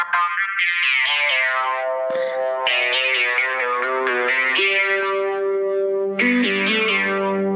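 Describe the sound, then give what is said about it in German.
An old intro jingle: a loud, psychedelic synth tune plays on its own, heavily processed tones with sliding, bending pitches and a swirling, distorted texture that restarts with a fresh burst near the end. “Also, das ist, glaube ich, nicht das Richtige. Das ist das alte, sagen, das, das alte, psychedelisch”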